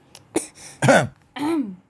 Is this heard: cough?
yes